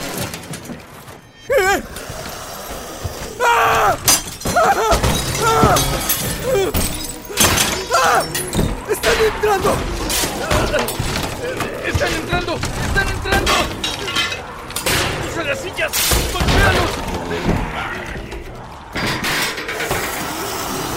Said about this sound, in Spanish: Y lo que en un principio eran unos cuantos, ahora eran incontables muertos vivientes, rompiendo vidrios y puertas, abriéndose paso al interior de la bodega.